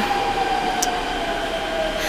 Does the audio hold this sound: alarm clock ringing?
no